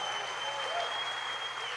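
An audience applauds the Lord at night, a dense wash of many hands clapping at an even level throughout, with a faint steady tone running underneath.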